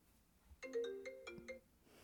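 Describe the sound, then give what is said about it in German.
A phone ringtone plays a short, bright electronic melody of stacked tonal notes for about a second, clear, with no voices over it. “Hast du das gehört? Ja, ähm, ich, ich würde jetzt sagen, … ruft an.”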